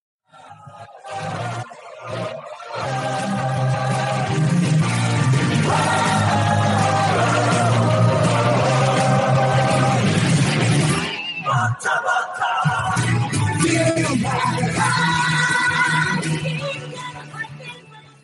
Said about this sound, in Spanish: Esta es la intro de toda la vida y la gente va a saltar, la gente que le guste el género le va a saltar enseguida.